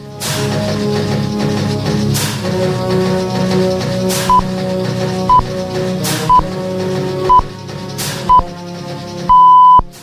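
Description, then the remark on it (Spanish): Five short, evenly spaced high beeps one second apart, then a longer final tone, sounding clearly over a steady background music bed: a radio time signal marking seven thirty, six thirty in the Canary Islands. “Enseguida van a sonar unas señales horarias que van a indicar que son las siete y media, que son las seis y media en Canarias, y dentro de unos segundos nosotros vamos con la revista de prensa.”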